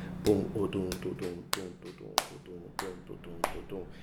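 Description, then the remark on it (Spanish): Crisp finger snaps mark the Caribbean rhythmic cell of salsa and bomba, stressing the downbeat at a steady, even pulse, about seven in a row, bright, while a voice talks or vocalizes continuously underneath them. “Este, pero es la misma célula rítmica que define la mayor parte de la música del Caribe la música caribeña, lo que es salsa, lo que es bomba de plena, tiene una tendencia hacia lo que en español llaman el downbeat, el, el tiempo fuerte, ¿verdad?”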